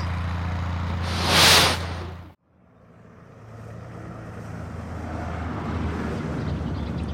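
A time machine starts up with a roaring, whooshing surge that swells into a bright hiss and cuts off abruptly, followed by a steady low rumble of background noise.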